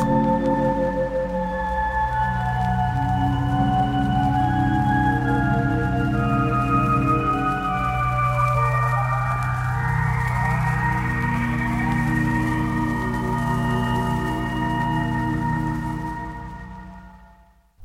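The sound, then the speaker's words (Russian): Sustained synthesized electronic drones and gliding tones from a Soviet space-themed film soundtrack layer into an eerie space-age soundscape, with a rising sweep near the middle, steady and loud throughout before fading out at the end. “саундтрек к фильму «В космос», он, конечно, именно про освоение нового звукового пространства, про одомашнивание диковинных экзотических шумов”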